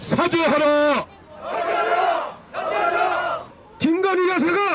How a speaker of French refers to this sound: Devant les bureaux de la présidence, ils ont scandé que l'interdiction de leur activité serait discriminante.